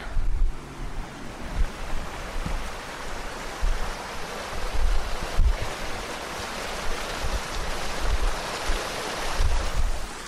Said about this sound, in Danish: Der er også øh, et øh, lille vandløb her. Det er sikkert noget forurenet spildevand. Øh, men det er også en dejlig lyd, som øh, jeg kunne bruge.